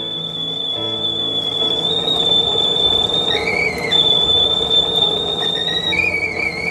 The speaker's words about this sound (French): Il se releva d'un bond alla faire chanter la bouilloire dans la cuisine.